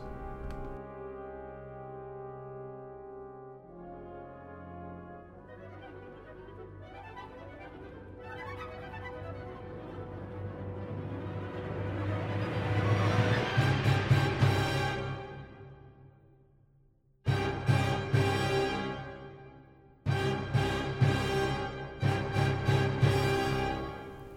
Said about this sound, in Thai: เพลงที่เราได้ฟังกันไปเมื่อสักครู่นะครับ ก็ชื่อว่า Mars the Bringer of War หรือว่าดาวอังคาร ผู้นำมาซึ่งสงครามนะครับ